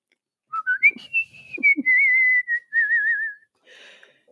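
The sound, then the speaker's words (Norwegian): A person whistles a short melody, rising at first, then holding long wavering tones with a warbling vibrato before stopping abruptly; no one speaks. “Det som hadde vært fint, var om Markus var her, så han kunne fortalt alle sammen hvilken melodi det er jeg plystrer i dag.”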